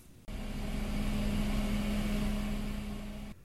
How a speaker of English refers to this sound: and the hum of the green conference room.